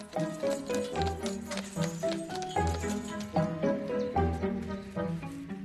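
horse-drawn carriage hooves clip-clopping

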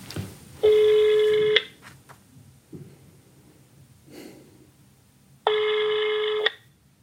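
telephone ringback tone

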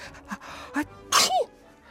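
sneeze from dust

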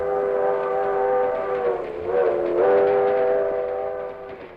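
train departing

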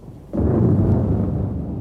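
thunder clap

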